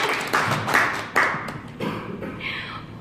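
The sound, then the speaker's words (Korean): A short, light round of applause: a few scattered bursts of hand clapping at an uneven pace, moderately loud, fading into a softer hiss toward the end, with no one speaking. “아 근데 박수 한 번 드려야겠네요”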